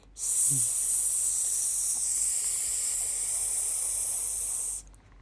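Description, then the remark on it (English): A spray paint can hisses in one steady, continuous burst of about four and a half seconds. The bright, airy spray holds an even loudness, then cuts off abruptly. “Oh no, he's got spray paint.”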